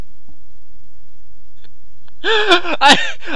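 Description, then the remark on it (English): After about two seconds of near silence with a few faint ticks, a man lets out a loud, strained, high-pitched scream in two quick bursts, unaccompanied, after apparently being bitten during a boxing match. “we've been able to obtain some audio that you may not have heard from referee Kenny Bayless immediately after that scream”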